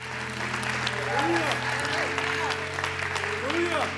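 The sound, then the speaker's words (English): A church audience applauds God steadily for several seconds after a prayer, a dense wash of clapping with voices calling out and a low sustained organ or keyboard tone underneath. “Can we give God a hand, everybody?”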